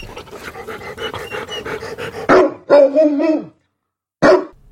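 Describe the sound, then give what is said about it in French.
A big dog pants in quick, steady breaths, then lets out a loud, drawn-out bark followed by a short, sharp bark after a brief silence, clear with no talking. “Il y avait un chien dans l'arbre, et pas n'importe quel chien, un chien aussi gros qu'un cheval, avec des yeux grands comme des assiettes.”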